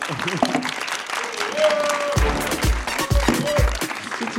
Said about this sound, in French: Eh ben, merci beaucoup à vous quatre. On va, on va maintenant, euh, on peut les applaudir.